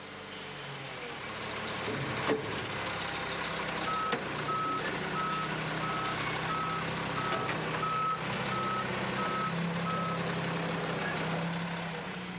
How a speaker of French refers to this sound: Des camions poubelles qui ramassent des sacs opaques pour les débarrasser le plus rapidement de nos rues et de notre vue.